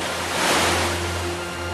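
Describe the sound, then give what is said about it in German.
Strong wind whistles and rushes steadily across an exposed mountainside on the Kitzsteinhorn, at the edge of Hohe Tauern National Park in Austria, swelling briefly early on, with a low droning hum beneath and no voices. “Man hört den Wind auch pfeifen.”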